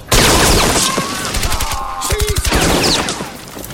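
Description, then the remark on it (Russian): Loud bursts of rapid automatic gunfire from a PPSh submachine gun crackle in quick succession as a sergeant fires precise short bursts at two German soldiers, with short pauses between volleys amid a noisy, chaotic battle backdrop. “Старшина берет следующий автомат. Точными короткими очередями поражает двух немцев.”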